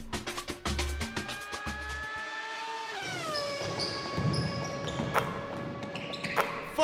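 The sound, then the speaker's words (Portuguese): A short produced news segment jingle opens with quick ball-bounce thuds, then shifts into a loud, rising engine-like whine with sweeping tones and a few sharp hits, played alone with no talking. “Pode puxar a vinheta.”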